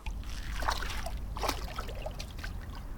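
Water sloshes and splashes as a person steps into the water, with a couple of brief surges of splashing over a steady low rumble of background noise.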